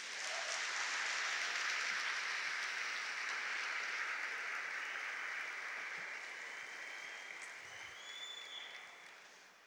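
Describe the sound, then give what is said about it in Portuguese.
A church audience applauds Jesus during a sermon, a dense, steady wash of clapping from many hands that holds strong and then gradually thins and softens toward the end, with no talking over it. “Aplauda Jesus por isso.”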